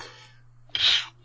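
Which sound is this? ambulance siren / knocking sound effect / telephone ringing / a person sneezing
a person sneezing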